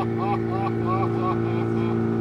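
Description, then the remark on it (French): A motorboat engine drones steadily and loudly, its low hum constant throughout while voices talk briefly over it. “Il a, a pas il a dit Arrête le moteur Arrête”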